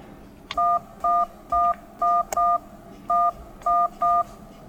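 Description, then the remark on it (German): A rapid series of eight short phone keypad tones, each a steady dual-pitched beep with brief gaps, as a conference ID is punched in one digit after another to dial into a Deutsche Telekom Telepresence conference bridge. No voices. “So oder so ähnlich klingt es dann, wenn man sich einwählt.”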